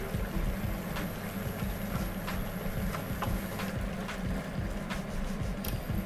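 A thick sugar-nut mixture, with a light caramel layer forming, bubbles steadily in a pan as it is stirred in, with soft pops and scraping stir strokes over a continuous low rumble; the heat is turned down to level 4 because it is bubbling a lot. No one speaks.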